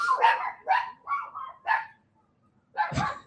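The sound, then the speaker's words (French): A big guard dog barks in a quick series of about five sharp barks, pauses briefly, then lets out one more deeper, louder bark because someone is entering the yard; no talking. “Une grosse garde à chien, hein, ou quoi? Euh, ça, c'est parce qu'il y a quelqu'un qui rentre dans la cour.”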